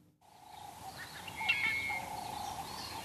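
Birds chirp and call in an open outdoor setting in Huange National Park, Zimbabwe, early in the morning. Several short bright tweets rise over a steady band of birdsong and soft ambient hum, with no voices.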